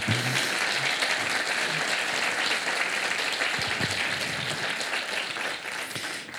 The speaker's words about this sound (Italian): Dai, visto che tornata, siamo tornati in presenza, a lei l'applauso più meritato.